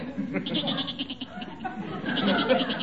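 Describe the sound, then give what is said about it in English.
A goat inside a garage bleats in a long, wavering, tremulous cry that breaks into quick pulsing stutters, rising slightly louder toward the end, with no other sounds around it. “Holy smokes, a goat. Gillis has got a goat in there.”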